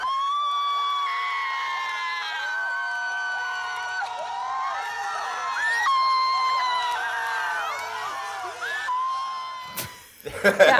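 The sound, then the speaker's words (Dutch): Dutch BNN presenter Emma Wortelboer, giving the points at the Eurovision Song Contest when the Netherlands won, shrieks and yells excitedly at a high pitch, nearly nonstop, over a cheering crowd, ending in a burst of noisy clatter. “Eh, toen ging Emma Wortelboer, zij is een bnn die de punten gaf voornemend op het Eurovisie Songfestival en die ging behoorlijk schreeuwen en dat klonk ongeveer zo.”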